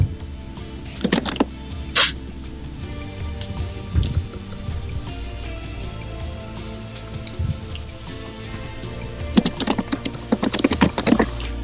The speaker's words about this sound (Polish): ciebie nie słychać, ale słychać twoją klawiaturę. Dobry znak.